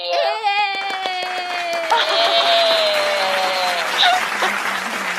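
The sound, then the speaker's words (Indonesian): A canned applause sound effect: a dense, steady wash of many hands clapping, with high whistling cheer-like tones sliding downward in the first couple of seconds, running about five seconds. “Nih sayangnya kita kita belum punya ini nih, belum punya uh, alat buat tepuk tangan nih. Eh, enggak nanti oh, gua kasih iya. efek.”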